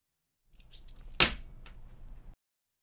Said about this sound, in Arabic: ثم وضع ديوك ثلاث عملات على الطاولة